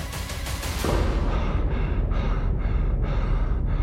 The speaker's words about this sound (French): Lorsqu'il arrive à sa forteresse, épuisé et tout essoufflé, il s'écroule comme une pierre au fond de son hamac.